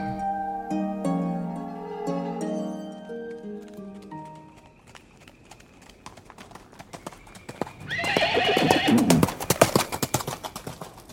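Sustained tonal notes open the scene, then a horse's hooves clip-clop in a steady rhythm, growing louder before a loud whinny breaks out near the end.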